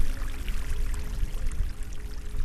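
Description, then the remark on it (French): Meltwater from the Pastoruri glacier in the Cordillera Blanca, Peru, at 5200 metres altitude, trickles and runs steadily, a continuous splashing and gurgling flow with no voices. “Ce bruit, c'est celui de la glace fondue qui ruisselle du glacier de Pastoruri, perché au cœur de la Cordillère Blanche, à 5200 mètres d'altitude, là où les touristes doivent affronter le manque d'oxygène pour apprécier le paysage.”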